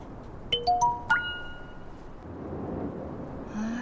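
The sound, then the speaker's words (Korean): A phone rings with an incoming call: a quick run of four bright, rising electronic chime notes, fairly loud, over a steady hiss of background noise that continues after the tones stop. “아씨 이게 정말 귀찮게 전화하지 말랬더니 주제도 모르고”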